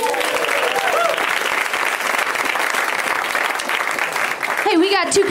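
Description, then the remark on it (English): A crowd applauds a visiting family in Los Angeles, a dense, sustained wash of loud clapping throughout, with a few faint cheers or voices rising near the end. “Let's hear it for this adorable family.”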